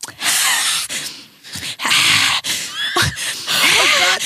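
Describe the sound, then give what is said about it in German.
A voice imitates the forced, fake laugh of a male model at a photo shoot, in loud, breathy, wheezing bursts with squeaky pitch glides, animated, with no clear words between the bursts. “und hat immer so gekünstelt gelacht und ich habe, es hat mich so aggressiv gemacht.”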